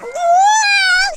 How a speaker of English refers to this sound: what you've just heard is a great example of our subscriber noise. It's a baby harp seal